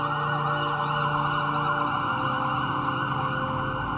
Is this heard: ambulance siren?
yes